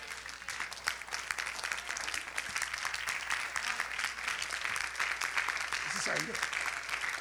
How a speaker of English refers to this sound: It doesn't make any sense to the people that understand why y'all clapping. You clap for football people, I clap for Jesus. Amen. Praise God.